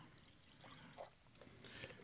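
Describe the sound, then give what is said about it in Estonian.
Homemade apple juice pours steadily from a bottle for about two seconds, a soft gurgling stream with a brief splash near the end, fairly quiet, with no one talking. “aga ma võtangi sellest kohe kinni ja teen ühe väikse õunamahla.”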